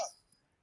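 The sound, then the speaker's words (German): A single short sneeze bursts out at the very start, then quickly fades into near silence. It sounds fairly soft, with no talking around it. “hoppla, Gesundheit.”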